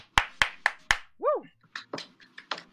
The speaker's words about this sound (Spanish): Fuerte el aplauso.